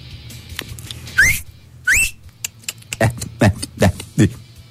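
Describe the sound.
Two sharp, rising whistles call for a horse, followed by a quick run of five or six short clicking, voiced pulses, all fairly loud over a low background hum.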